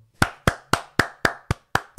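Hands clap eight times in a quick, steady rhythm, each clap sharp and close with a short ringing tail; a single person clapping, no voices.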